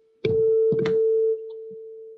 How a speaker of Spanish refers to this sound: Yo voy a golpear uno de ellos y entonces el de al lado va a vibrar porque es un diapasón igual y la cavidad es igual y va a crear sonido. Y usted va a ver lo que pasa cuando yo, yo golpeo y aguante este diapasón. ¿Qué pasó con el otro?